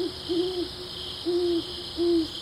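A tawny owl, a nocturnal hunter, hoots three times in a steady, evenly spaced series of short, low, hollow notes over a constant high insect-like hiss in the night air.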